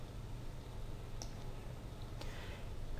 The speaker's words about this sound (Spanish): Repito lo mismo en el fotograma 30, hago clic en el 30, esa sería su posición, y ahora lo desplazo a otra posición de la pantalla.